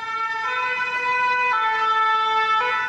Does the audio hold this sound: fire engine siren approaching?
yes